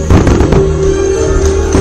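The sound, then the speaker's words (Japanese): Fireworks explode in a loud, dense barrage during a New Year fireworks show set to music, with heavy overlapping booms and crackles strongest at the start and a steady droning tone running underneath throughout. “はい、ステッチも後ろを向いて花火を見ておりますステッチも花火を後ろを向いて驚いております”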